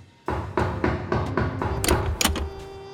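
A door being opened: a rapid series of solid thuds and wooden knocks, then a couple of sharper latch-like clicks and rattles near the end, with no voices.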